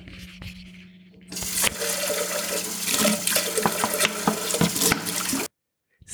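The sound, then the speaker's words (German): Water runs steadily into a sink while used pots, pans and cutlery are washed up as a cake bakes in the oven. Scattered clinks and clatters of metal sound over the rushing flow before it stops abruptly. No one speaks. “währenddessen, dass euer Kuchen im Ofen backt, ist es ganz wichtig, dass ihr noch eure gebrauchten Töpfe, Pfannen und Besteck abwäscht”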